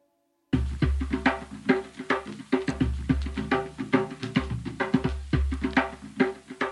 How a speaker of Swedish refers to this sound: här är trummor som man kan höra i de ångermanländska skogarna just nu. Indiantrummor.